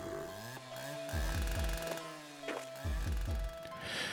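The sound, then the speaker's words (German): A chainsaw engine runs loudly indoors, its buzzing drone rising and falling as the throttle is revved in short bursts, with no voices. “Hier drinnen bin nur ich und meine Kettensäge.”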